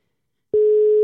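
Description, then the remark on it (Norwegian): After a brief silence, a steady telephone ringing tone starts and holds at one even pitch for about half a second, as on an outgoing call waiting to be answered. Nobody speaks. “Se om hun svarer, da.”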